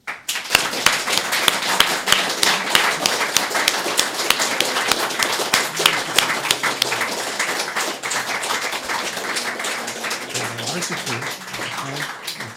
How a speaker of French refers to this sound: Donc, je vous demande de l'applaudir.